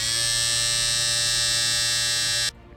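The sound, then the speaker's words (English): A Manscaped 3.0 electric body hair trimmer buzzes steadily and loudly for over two seconds, rich with sharp motor harmonics, then cuts off abruptly. No one speaks over it. “And that noise you hear, I don't know who the, you. It is the Manscaped 3.0 lawnmower, yes.”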